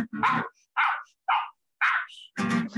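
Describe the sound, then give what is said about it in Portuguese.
A man barks like a dog, about five loud woofs in quick, uneven succession, his voice imitating the sound with no other talking. “o cara latiu, bicho.”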